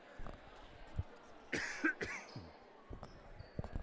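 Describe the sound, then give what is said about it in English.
Two sharp coughs in quick succession, loud against a quiet gym background of faint thuds and murmur, during a game at Amity High School. “this cough just showed up out of nowhere”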